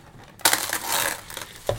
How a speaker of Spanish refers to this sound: Eso sonó como rechinido de puertas